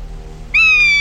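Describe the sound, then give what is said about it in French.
A golden eagle's cry as it flies overhead: one loud, piercing, high-pitched call that bursts in halfway through, rises slightly and then holds steady, shrill and tonal, with no voices. “C'est l'aigle royal. Il vole au-dessus d'eux.”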